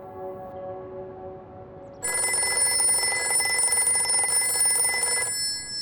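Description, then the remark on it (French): A telephone rings in the middle of the night at Balmoral in Scotland, where the Queen takes the call, with a bright, sustained electronic trill lasting about three seconds, following a softer steady tone, with no voices present. “Au milieu de la nuit, le prince est réveillé en sursaut. La souveraine prend l'appel avant de se précipiter vers la chambre de son fils.”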